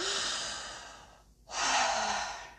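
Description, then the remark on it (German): A long, loud, exaggerated deep breath drawn in, a brief pause, then an even stronger, airy exhale rushing out. No talking accompanies it. “Und hier lege ich sehr viel Wert, dass du nicht fängst an super tief zu atmen.”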